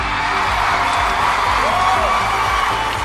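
A crowd applauds and cheers steadily, dense clapping mixed with whoops and shouts, loud and sustained for the whole stretch with a rising whistle-like yell partway through.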